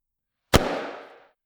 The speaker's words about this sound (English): The sound of sharp, cracking explosions in the trees above us. I glanced up. Something falling. A net! Big steel nets were exploding from the trees above us, falling toward us.